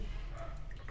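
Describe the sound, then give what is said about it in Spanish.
A brief, quiet pour of mezcal into a glass, with a soft trickle and a few small drips and splashes over a low background hum, no talking. “Pero antes de empezar, vamos a servirte mezcal sí, por favor.”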